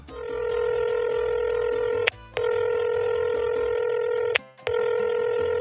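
A telephone ringback tone on an outgoing call to the Mais phone line: a steady, buzzy electronic tone in long pulses of about two seconds, broken by brief silent gaps, clear with no voices.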